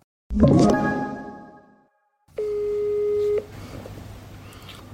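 A sharp clunk of a handset being picked up rings out and fades, then a steady electronic ringback tone sounds once for about a second before the line clicks into quiet hiss, as a call is placed from a different phone.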